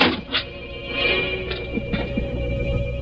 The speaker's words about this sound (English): I stopped before the door of Mrs. Hogan's room. I opened the door with the keys.